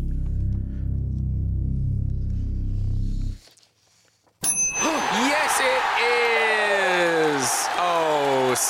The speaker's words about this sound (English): I hope the cheering didn't startle Tula too much.